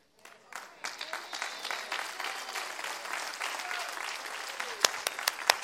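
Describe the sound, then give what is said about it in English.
An audience claps in a dense, sustained burst of applause that swells quickly and holds steady, with a few sharper, louder claps standing out near the end. “Come on, clap your hands.”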